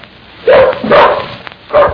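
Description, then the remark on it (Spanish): A dog barks three times in quick succession, loud, each bark a sharp burst with short pauses between them, over a faint background hiss. “Ah, ¡Cállate tu animal!”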